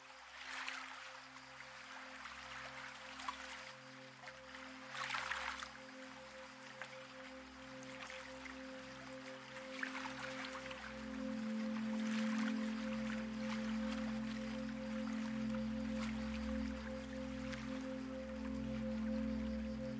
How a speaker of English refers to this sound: You're standing on a wooden dock, and blue green water is lapping gently at a stone wall. With each tiny wave, the water leaves its imprint on the stone.